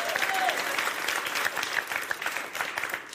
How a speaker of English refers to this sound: not worthy of applause, but okay.